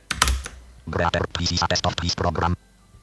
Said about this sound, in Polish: Nic prostszego, naciskamy Ctrl Enter.